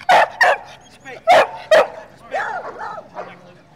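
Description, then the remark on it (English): A dog at a dog contest with categories such as best bark barks sharply four times, in two quick pairs, then lets out a few higher, whiny yelps and whimpers. The sounds are fairly loud. “Other categories are best bark, biggest dog, smallest dog, dog that looks the most like Jim.”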